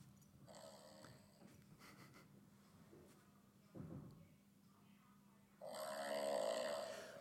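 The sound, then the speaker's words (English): A small Shih Tzu dog snores in rhythmic rasping breaths, with a snort midway and a louder, buzzing, almost purring snore swelling near the end. No one speaks. “That is actually a Shih Tzu dog.”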